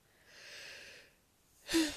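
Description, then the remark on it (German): A person yawns: a long, breathy intake of air, a brief pause, then a short, louder voiced exhale at the end. It is fairly soft, with no talking. “Ah, ähm, sorry für den Gähner.”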